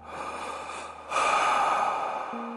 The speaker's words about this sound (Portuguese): Isso. Essa respiração funda que eu dei agora é uma respiração de que tudo está tranquilo, tudo vai dar certo agora.